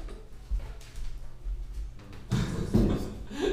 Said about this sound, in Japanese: 椅子がね、椅子がギコギコギコギコ体重体重のせいで、ね、はい、はい、あこれやったら大丈夫です